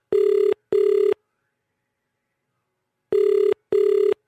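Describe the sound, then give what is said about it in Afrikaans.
A telephone ringback tone, heard after dialing a number, purrs in two short double bursts separated by a long pause of silence, steady and clear, with no voices present. “Uh en vierde, luister jy of die leitoon verander van een van 'n lang leitoon na 'n leitoon wat klink soos 'n telefoon wat lei.”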